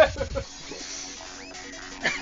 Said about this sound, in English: Which this is a growl from Echo.